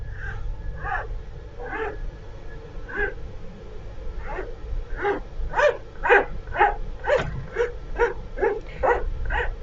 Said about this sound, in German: Wir setzen die Pfeile an und dann machen wir hier praktisch an der letzten Kante vom Ski feilen wir das ein bisschen ab, ganz leicht, machen wir eine ganz leichte Phase praktisch dran